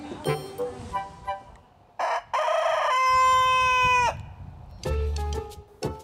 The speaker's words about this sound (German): Auch mit seinem Hahn Max muss sich Moris Pfeifer was überlegen. Er wird immer lauter, je älter er wird.